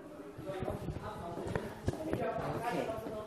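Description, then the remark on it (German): Footsteps walking down from the first floor of a school to the schoolyard at break time, a steady series of sharp clacks on a hard surface at a brisk pace, with a murmur of voices in the background. “Vom ersten Stock gehen wir jetzt auf den Schulhof.”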